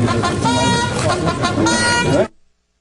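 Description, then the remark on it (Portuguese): A bugle blares steadily in the background of a loud, noisy outdoor flag-raising ceremony with voices mixed in, holding its brassy tone for about two seconds before cutting off abruptly. “a corneta tocando ali no fundo, né?”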